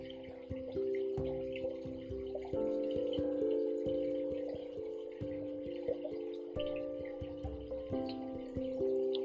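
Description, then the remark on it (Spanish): A gentle stream flows and trickles steadily, with small drips and splashes, beneath soft sustained musical tones that shift slowly throughout; no one speaks. “Piensa que esta agua que está corriendo a través de nuestras manos es un agua purificadora, está limpiando nuestros pensamientos, nuestras emociones.”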